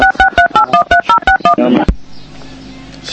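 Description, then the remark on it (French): A rapid string of about ten telephone keypad dialing tones beeps out in quick rhythm, followed by a click and a quieter line hiss with faint background noise. “Allô, allô oui, je crois qu'il y a une, question téléphonique. pas. Pourtant, personne n'y a touché.”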